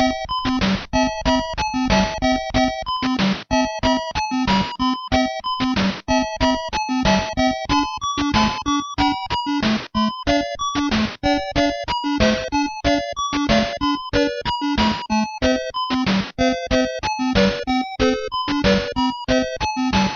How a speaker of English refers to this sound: and my phone is ringing, so I will now go answer the phone.